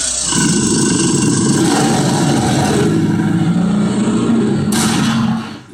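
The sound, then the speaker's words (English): A loud, rough growl from an angry bear rumbles low and steady for about five seconds, then quickly fades out. No one talks over it. “Alright, that means wrap it up then, or else you're gonna bring out the angry West Hollywood bear.”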